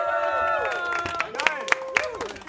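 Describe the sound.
An audience claps and cheers once more for a woman guest, with whooping voices rising and falling over a steady crowd din and a few sharp, evenly spaced claps standing out toward the end.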